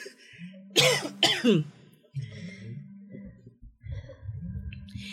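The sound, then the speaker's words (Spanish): Two sharp, harsh coughs burst out, followed by a throat clearing, with a person's low voice murmuring between and after the coughs. “perdón porque me está dando mucha tos.”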